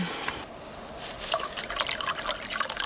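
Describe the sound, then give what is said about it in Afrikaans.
Liquid trickles and splashes steadily into a glass as it is poured full, a soft continuous pour with bright, bubbly spatters and no voices. “Jy skink vol, Jan? Ja, Esther. Ek skink vol.”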